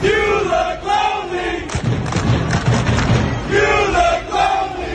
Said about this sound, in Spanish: Yo le confieso que cuando escuché pensé que le estaban gritando You look lonely a uno que jugaba los Chicago Bulls. Pero no, le decían You look lonely, es decir, ah. te ves solitario, porque ah. estaba solo.